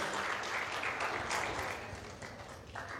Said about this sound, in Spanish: Adore a Dios, dele un aplauso al Señor, dígale gracias por mi salvación, por lo que has hecho en la cruz.